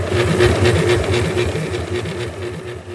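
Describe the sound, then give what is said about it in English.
A 3D printer runs with a steady mechanical whir, its motors humming in quick rhythmic pulses as the print head moves, fairly loud, with no voices. “This printer prints in three dimensions.”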